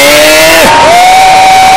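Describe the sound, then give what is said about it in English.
A church audience screams and cheers for Jesus during a service in a loud, continuous roar, with a few high sustained voices wailing above the dense crowd noise throughout. “Hey, I said, give Jesus a scream.”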